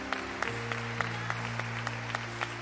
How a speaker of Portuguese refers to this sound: Você pode aplaudir o Senhor, vai ser surpreendente.